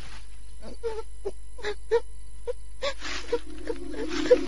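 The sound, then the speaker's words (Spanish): A child cries in a string of short, gasping sobs that swell into a longer, sustained wail near the end. It stands alone, with no talking. “Comenzó a escuchar el llanto de un niño.”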